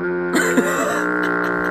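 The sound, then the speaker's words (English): A voice imitates a harsh, hacking smoker's cough: two rough, throaty bursts close together, followed by a drawn-out, gravelly rasp, loud. “And you get that big smoker's lung in there too, so that way you got motherfuckers sitting there by families of four coughing, sounding like goddamn.”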